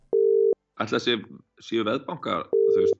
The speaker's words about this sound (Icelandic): erum við að reyna að ringja hann